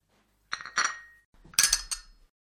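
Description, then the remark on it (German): Coffee cups clink against each other while coffee is being served, in two short clusters of bright, ringing chinks, with a clattering handling sound between them and no talking. “Möchte noch jemand Kaffee?”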